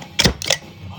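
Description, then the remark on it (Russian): A beer bottle cap is pried off: two quick, sharp metallic clicks about a third of a second apart, fairly loud, followed by quiet. “А, ну тот звук, который вы слышали, это был звук открывания прекрасной как это, прекрасной”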